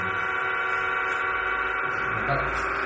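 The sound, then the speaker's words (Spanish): Sonified radio pulses from pulsars, combined, merge into a dense, continuous chord of buzzing tones, like many horns blaring at once. It stays loud and steady throughout, with slight wavering in intensity that simulates the effect of propagation through the medium. “Y me podéis decir, y la variación de intensidad, porque a veces oye más fuerte, a veces más bajo, es el efecto en media propagación, ¿vale? Está simulado a través de este sonido.”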